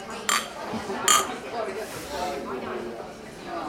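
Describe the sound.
Two bright glass clinks ring out in a toast, one after the other about a second apart, followed by people talking over a murmur of background chatter.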